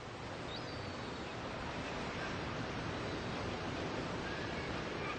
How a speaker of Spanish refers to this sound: El mar llega y apacigua nuestro estado de ánimo. De repente los problemas se ven de otra manera. La inmensidad del océano nos hace ver lo pequeños que somos y el sonido de las olas parece un mantra que poco a poco nos relaja.